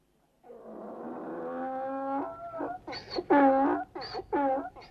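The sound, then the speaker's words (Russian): A donkey, laden with a sack of fragrant cinnamon and left to rest for the next caravan at a halt near a Chinese border post above the fork of the roads to Kargalyk and Khotan, brays loudly: a long, droning harmonic call gives way to rhythmic, rasping hee-haw bursts. No one speaks. “Отец, откуда он взялся, этот ослик?”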